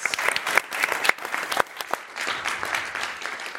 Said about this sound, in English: Let's give a round of applause for our panelists.